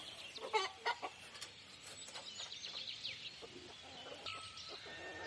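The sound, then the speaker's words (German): Bantam chickens cluck and murmur in a busy cluster in an aviary they share with peacocks, with a few sharper calls early on, over a quiet outdoor background with no talking. “Das sind die Zwerghühner in der Voliere, die mit den Pfauen hier ihr Zuhause haben.”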